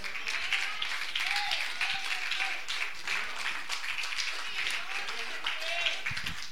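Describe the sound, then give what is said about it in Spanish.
A crowd applauds steadily for several seconds, giving applause to Christ, a dense, sustained patter of many hands clapping, with faint voices calling out beneath it. “Levante la mano, dale un aplauso a Cristo que está ahí puede.”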